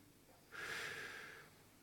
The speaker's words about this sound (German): Atmet nochmal ein. Atmet weiter ein. Und nochmal ganz tief einatmen.